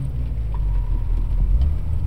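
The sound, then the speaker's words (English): A Jeep's engine rumbles heavily and continuously as the driver hits the gas and its wheels spin in mud, shaking the car; a deep, steady churning roar with no voices. “The car shook as the wheels spun in the mud.”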